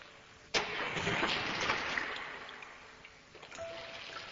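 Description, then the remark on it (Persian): A well pulley creaks and rattles as a bucket of water is hauled up on a rope, a rough grinding rush with water sloshing, ending in a short high squeak near the end. Fairly loud, no voices. “آواز قرقره رو همونطور تو گوشم داشتم و تو آب که هنوز میلرزید لرزش خورشید رو دیدم”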